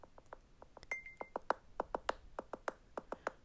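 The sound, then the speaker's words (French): The Soundscape navigation app's original audio beacon ticks rapidly on a phone, a quick, evenly paced train of short, bright electronic pings with a brief steady high beep near the start, fairly quiet and alone. “Donc, vous entendez un nouveau son qui est, selon moi, un petit peu moins agressant et peut-être un petit peu trop rapide.”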